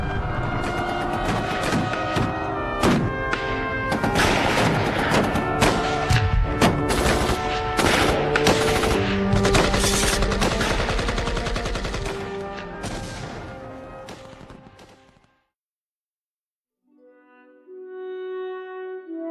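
Dense, rapid gunfire crackles in overlapping volleys with heavy thuds for about fifteen seconds in a battle scene at a fort under attack, then cuts abruptly to silence before sustained musical tones fade in.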